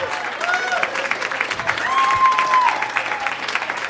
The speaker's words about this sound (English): Give it up for all the comics you've seen on the stand up portion